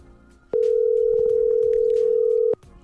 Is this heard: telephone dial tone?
yes